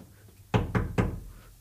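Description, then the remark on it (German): Three quick, solid knocks on wood in an even rhythm, fairly loud, each with a short dull ring that fades before the next, with a quiet background otherwise. “Klopf dreimal auf Holz.”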